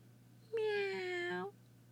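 A single drawn-out kitten meow lasting about a second, high and slightly falling in pitch, loud and on its own over a faint low hum; a small kitten in a park, peeking out from the bushes.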